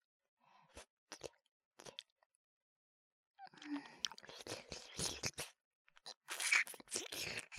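Wet ear-licking mouth sounds in an ASMR recording, starting as a few sparse smacks and building into a dense, continuous stretch of slurping and clicking, with no talking.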